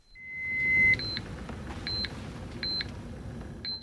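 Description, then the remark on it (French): A hospital patient monitor alarm beeps in a repeating pattern, a long tone followed by four sets of short, evenly spaced double beeps, clear over a low background rumble; the monitor's alarm limits have been lowered. “Je baisse les limites des alarmes du scope en espérant que son état s'améliore spontanément.”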